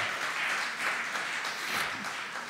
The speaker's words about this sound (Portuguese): Você pode aplaudir o Senhor.